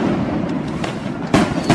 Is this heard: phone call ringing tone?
no